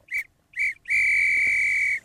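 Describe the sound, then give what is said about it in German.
Someone whistles two short, sharp notes followed by one long sustained note at the same steady pitch, loud, with no talking. “Wenn du pfeifst, das ist doch keine Musik, nach der man tanzen kann oder möchte.”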